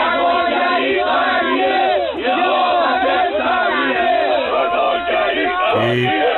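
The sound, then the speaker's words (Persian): A large crowd of demonstrators, supporters of population growth gathered in the city, chants slogans defending the government's policies and shouts together in a dense, continuous roar, many voices rising and falling loudly, with no pause throughout. “یه سری از طرفداران افزایش جمعیت اینجا جمع شدن و دارن از سیاست های نظام دفاع میکنن”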